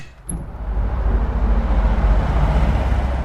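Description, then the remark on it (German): A short click as an office window in the half-timbered town hall of Jesberg is opened, then a loud, steady roar of heavy traffic on federal highway B3 swells in, a constant low rumble of passing vehicles heard through the open window outside rush hour, with no voices. “Wir haben hier ein hohes Verkehrsaufkommen auf der Bundesstraße B3 und da ist ein Arbeiten mit offenem Fenster nicht möglich.”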